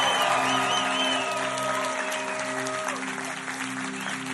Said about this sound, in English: Come on, give your pastors a good hand. They're awesome.